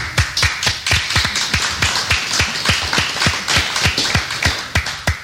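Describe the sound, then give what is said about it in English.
Hands clapping steadily for about five seconds, sharp slaps coming several per second in a loose, slightly uneven rhythm, fairly loud, with no voices over them. “Yes, I, I, wanted to clap, and uh, really? let's do.”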